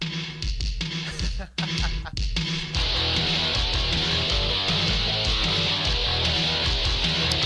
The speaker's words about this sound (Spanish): ¿Pues más canción de videojuego de los 80? Sí, o sea, es completamente, completamente.